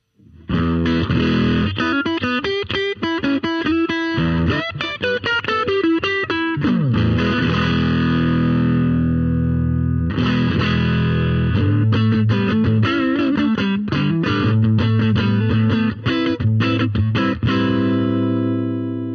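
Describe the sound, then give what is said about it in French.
Electric guitar on its single-coil neck pickup, switched from the humbucker, played loud with a slightly gritty amp tone and a light touch of spring reverb, no EQ changes, strumming chords and picking riffs for nearly twenty seconds with a brief break midway; no voices. “Là, j'étais donc sur l'humbucker, on passe sur le micro simple bobinage en manche.”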